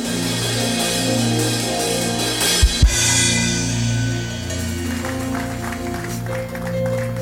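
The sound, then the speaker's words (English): A crowd at Gracemade Christian Center applauds a pastor steadily for several seconds, a dense hiss of clapping over sustained low musical tones, with a couple of brief heavy thumps partway through. “Gracemade Christian Center, please give a resounding applause to Pastor Yemi Davids.”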